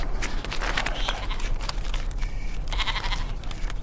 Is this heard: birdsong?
no